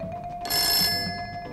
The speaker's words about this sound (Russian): И вдруг звонят по телефону.